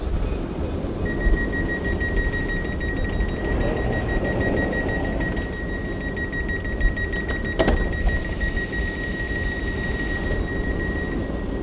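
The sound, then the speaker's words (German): A train starts pulling away from a station, with a low steady rumble, a sustained high whining tone and a brief clank partway through, with no voices. “Jetzt fährt tatsächlich auch der Zug los.”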